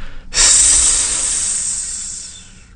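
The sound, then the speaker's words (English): Someone makes a loud, steady hissing sound with their voice, imitating decomposing gases escaping from an injured hand. It starts abruptly after a brief pause and holds for over two seconds, slowly tapering off. “He then says he heard this noise.”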